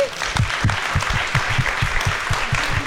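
An audience claps for three guests at the close of a live conversation event, a sustained round of applause, a dense, steady patter of many hands at fairly loud level throughout, with no voices standing out.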